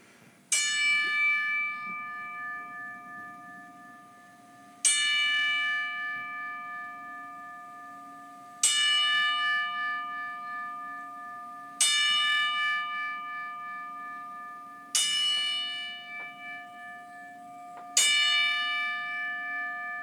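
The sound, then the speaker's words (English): A single bell tolls slowly as a ten-bell salute, six clear, evenly spaced strikes, each ringing out with a long shimmering decay before the next. It rings alone at steady volume, with no talking. “But uh, if you don't mind, um, uh, ten bell salute.”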